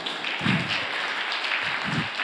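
A short burst of audience applause, a steady dense patter of many hands clapping at moderate loudness, with a couple of low thumps underneath and no talking.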